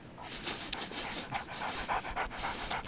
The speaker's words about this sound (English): Monty smiled and scampered off to find his friends Polo the poodle, Coco the cocker spaniel, and Daffy the dachshund. He greeted them all in the customary doggy fashion by sniffing each of their bottoms.